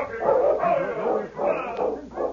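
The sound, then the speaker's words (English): A sled dog team coming into town from the east barks and yips in a continuous, overlapping chorus of excited calls, steady, with no voices or other sounds alongside. “Hey, there's a dog team coming into town from the east.”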